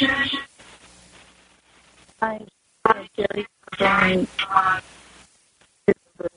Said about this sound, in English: Echo. Oh, I'm sorry. Um, I don't know if it might be my phone, possibly. I had a phone problem here for a few seconds.